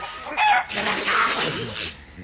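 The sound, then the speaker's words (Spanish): A man grabs a hen by the neck and wrings it; the chicken squawks frantically and loudly in harsh agitated bursts that run together for a couple of seconds, with no voices present. “salta sobre una de las gallinas, se aferra al pescuezo y mirando a Negretti lo tuerce”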